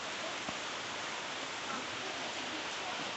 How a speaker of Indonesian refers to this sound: buat semua sih sebenarnya ya hujan kayak gini berbanyak e, minum vitamin makan makanan yang bergizi bergizi gitu